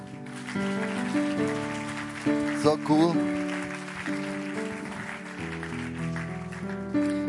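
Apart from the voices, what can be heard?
audience applause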